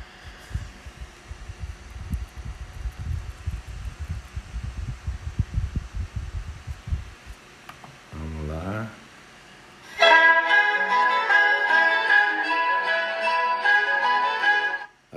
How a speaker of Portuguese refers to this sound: Mas como é Sebastião Bach, aí a galera libera. Vamos ouvir esse começo aqui desse concerto. Número 2.